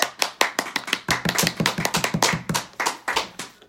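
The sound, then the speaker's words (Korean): A brisk burst of hand clapping for an award received, a steady run of sharp, bright claps that quickens and overlaps in the middle, as if a few people applaud together, with no talking. “받았어요 감사합니다 박수!”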